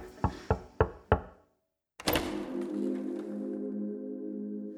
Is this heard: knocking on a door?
yes